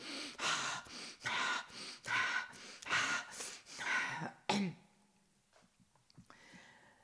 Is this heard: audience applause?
no